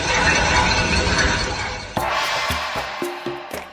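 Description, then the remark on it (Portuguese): A steady wash of crowd noise gives way to loud, ringing metallic clangs, about half a dozen irregular strikes, as people bang pots in a panelaço public protest. “Panelaço é quando as pessoas batem as panelas bem alto na janela de casa para fazer barulho mesmo e mostrar que não concordam com o que o político está falando na TV.”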